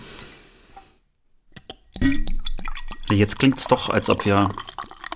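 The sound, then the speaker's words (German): A soft rushing hiss like beer pouring from a just-opened bottle of Doppelbock Schlossbräu fades out, followed by a few light glassy clicks, then people start talking. “Ja, bitte, lass uns erstmal das Bier aufmachen und ähm, ja, es heißt Doppelbock Schlossbräu.”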